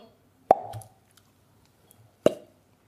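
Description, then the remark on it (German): Two hollow, cork-like pops of a finger pulled out of a mouth, fairly loud, spaced nearly two seconds apart with quiet between them and no talking. “Na, du musst den Finger, also man macht eine, heutzutage, ich sage aus der Zeit vor Covid und Co., wo man auch gerne mal schmutzige Finger haben konnte, dann nahm man den Finger in den Mund und macht dann so”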